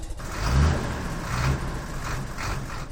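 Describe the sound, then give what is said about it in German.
A powerful 600-horsepower car engine roars, revving hard in three rhythmic surges as it accelerates as traffic starts moving again in a jam, its deep rumble loud and steady between bursts, with no voices. “So, jetzt zeige ich Ihnen mal, was mein Wagen drauf hat mit seinen 600 PS.”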